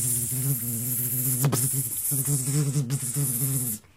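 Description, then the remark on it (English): A steady voice imitates the buzzing of a huge mosquito flying down over an iguana in a forest, a wavering nasal drone that holds for about four seconds with a couple of brief breaks before cutting off. “And the iguana is walking through the forest by himself, minding his own business, and a huge mosquito flies down over the iguana.”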